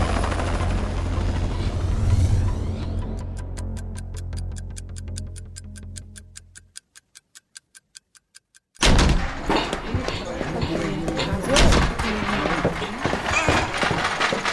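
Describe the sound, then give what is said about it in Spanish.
A helicopter's rotor roars loudly for several seconds as an injured person is lifted aboard, fades into a steady rhythmic ticking chop, then a dense rush of noise returns. “Y en el helicóptero, los demás en la ambulancia.”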